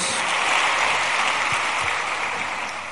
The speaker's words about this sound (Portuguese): Pode aplaudir, né? A palavra de Deus.